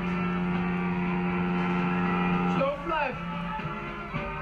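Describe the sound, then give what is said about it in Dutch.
A large boat's engine drones steadily with a deep, constant hum, then its pitch shifts and wavers as the vessel slows, as if easing in to dock; the boat, loaded with packages of presents and sweets, is arriving to moor for the Sinterklaas arrival. “Hij is er bijna, dus laten we gauw terug gaan naar Jeroen. Dan kan hij gaan helpen met aanleggen. Hoor je dat?”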